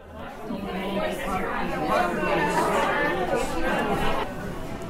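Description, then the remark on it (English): A dense wash of overlapping voices from around 40 people at an MTA meetup in an Italian restaurant near a race finish line, steady and fairly loud throughout, with no single speaker standing out. “We had around 40 people there at the meetup. Got a few sound bites. It was at an Italian restaurant pretty close to the finish line.”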